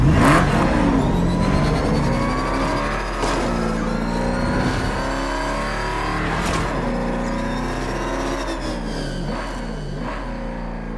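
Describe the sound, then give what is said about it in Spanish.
A sports car engine roars and revs hard at high speed during a full-speed drive through Copacabana, its pitch rising and falling in sweeping bursts over a steady, loud rumble that continues throughout. “Durante esas escapadas a toda velocidad por Copacabana, Don Miguel dejó esta frase para Bruce Wayne.”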